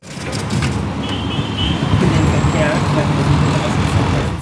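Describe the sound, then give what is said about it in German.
Busy city street traffic ambience in Lagos, Nigeria: a steady low rumble of cars, buses and trucks, with faint high tonal whines and indistinct voices mixed into the dense, continuous roadway noise. “Ich bin in Nigeria und ihr könnt jetzt mal ein bisschen Atmo hören.”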